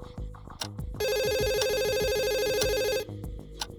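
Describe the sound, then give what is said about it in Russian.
A telephone rings with a bright electronic tone, one steady burst lasting about two seconds, loud over a softer rhythmic thumping background that continues before and after it. “О, вас вызывают”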